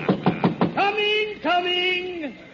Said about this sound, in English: In a moment now, you'll hear me knock on Santa's door, and he'll unlock it, never more to lock again.